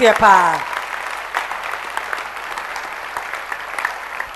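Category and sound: crowd, audience clapping hands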